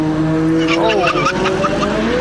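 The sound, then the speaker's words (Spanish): A stolen car is driven away: its engine revs hard with a steady droning tone while tires squeal and skid in sharp, wavering bursts, loud throughout the short stretch, with voices faintly audible underneath. “¡Se está llevando el carro!”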